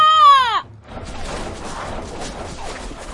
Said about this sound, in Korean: 마을 사람들은 호랑이를 향해 화살을 마구 쏘아댔죠.